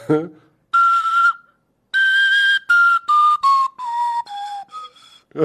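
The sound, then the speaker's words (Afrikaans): A pennywhistle, not in a standard key, plays a string of separate random notes, bright and breathy, stepping mostly downward in short bursts with small gaps between them, fairly loud, after a brief spoken voice at the start. “hy klink al beter as die ander een. Hierdie is nie uh eh, hy's nie gewone key nie. Hy't sommer net random note.”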